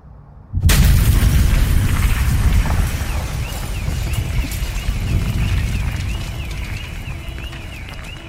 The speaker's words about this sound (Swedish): Och det var han som skapade ljudet där han rekonstruerade bomben i avsnitt 1.